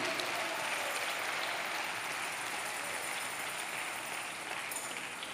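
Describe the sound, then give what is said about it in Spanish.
Steady, sustained applause from an audience, a dense wash of many hands clapping at an even level throughout, with no voices standing out. “No estoy oyendo el aplauso.”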